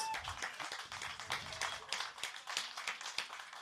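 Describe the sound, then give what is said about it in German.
Steady applause from a crowd, a dense patter of many hands clapping continuously at moderate volume, with no voices standing out. “Super, ein Applaus.”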